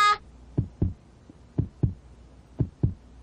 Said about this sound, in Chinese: 那在哪里听我的心跳呢？在这里，没错。 你好好笑哦，Boots。好了，来听听看吧。